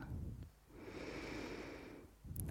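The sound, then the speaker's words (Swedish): A slow, deep inhale drawn through the nose, a soft hissing rush lasting over a second, fairly quiet, with faint low rumble before and after and no talking. “Andas in.”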